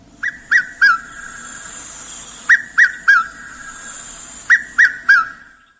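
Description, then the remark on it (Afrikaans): A red-chested cuckoo (Piet-my-vrou) calls three times, each a loud, clear three-note whistled phrase descending in pitch, repeated at steady intervals over a soft hiss of background noise. “Piet my vrou, die Engelse red-chested cuckoo, is 'n intra-Afrikaanse migrant wat sover noord as die suide van Sudan voorkom, Nigerië, en dan in die noordelike winter aftrek na die suidelike derde van Afrika om hier te kom parasiteer”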